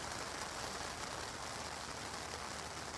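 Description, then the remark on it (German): Steady rain pattering down continuously at a festival campsite with a tent at 6 a.m. on a Sunday, a dense even hiss of drops on a surface, fairly loud, with no voices. “Aber wie man glaube ich hören kann, schneit es nicht, sondern es regnet.”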